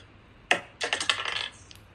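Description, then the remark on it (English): Dice rolling on a table: a single sharp clack, then a quick rattling series of small hard clicks tumbling across a hard surface for about half a second before settling, fairly clear with no talking. “Ooh, the dice is hot. The dice is hot.”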